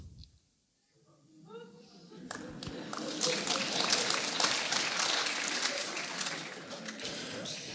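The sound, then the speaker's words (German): A crowd bursts into sustained applause, dense crackling clapping that swells after a brief quiet start and stays loud throughout, with some voices mixed in underneath. “Auch eigentlich schlimm, dass man dafür einen Applaus kriegt.”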